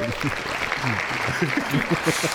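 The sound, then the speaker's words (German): Steady, dense applause sound effect fills the whole clip, a continuous crackle of many hands clapping, with voices talking over it throughout. “Respekt, Respekt, dafür kriegst du erstmal einen Applaus.”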